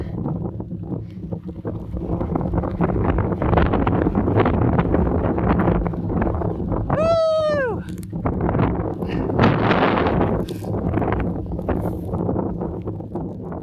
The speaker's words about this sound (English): Oh my god, it's so windy up here. And it's raining too. It's about to blow me off this mountain.